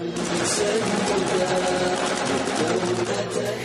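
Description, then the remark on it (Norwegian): A sustained burst of rapid automatic gunfire, a volley fired by Boko Haram leader Shekau in a video, a dense, continuous rattle of shots that holds steady for several seconds, loud throughout, with shouting voices mixed underneath. “Nå skal både Nigeria og Kamerun utslettes, sier Shekau, før han fyrer av ei skuddsalve.”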